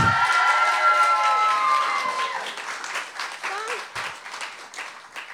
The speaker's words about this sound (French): Est-ce qu'on peut l'applaudir encore?